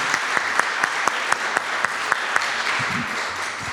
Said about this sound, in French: Et je vous propose qu'on les applaudisse. Merci beaucoup. Merci à tous les trois